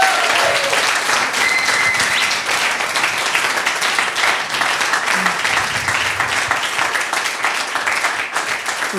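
An audience applauds steadily for about nine seconds, a dense, loud wash of many hands clapping at once with no clear rhythm, holding an even level throughout.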